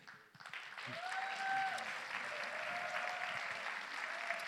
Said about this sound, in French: Et j'aimerais qu'on puisse euh, l'accueillir avec des acclamations, honorer l'homme de Dieu qu'il est.